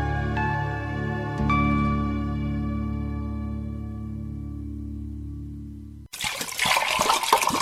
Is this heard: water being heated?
yes